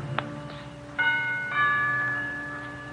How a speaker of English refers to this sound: push open the heavy iron gates, hurry up the path to the front door of the villa, and I lean on the bell.